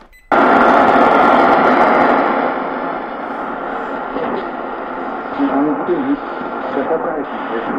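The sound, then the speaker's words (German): A Tecsun S-2000 world band radio receiver switches on abruptly, playing a shortwave station: a loud, continuous wash of hiss and static with a muffled broadcast voice underneath, fading slightly and warbling. “Weltempfänger Tecs”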